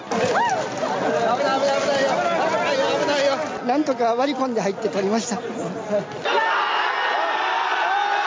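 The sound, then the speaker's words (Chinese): A dense crowd of excited Hanshin Tigers baseball fans in Osaka, celebrating the team's Japanese professional baseball championship, cheers and yells in the street, loud overlapping shouts and whoops rising and falling, then giving way to a steady, noisy roar of crowd hubbub. “大阪大洞窟也塞爆狂欢的人潮，在街头狂吼狂叫。”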